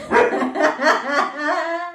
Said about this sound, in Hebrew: אה, פרידה פה נובחת.